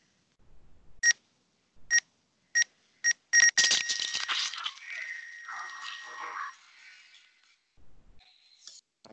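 A TV countdown clock counting down from 24 to 0, beeping, played tinny through a phone speaker held up to a microphone: five sharp beeps coming closer together, then a long, distorted rush of noisy tones that fades out.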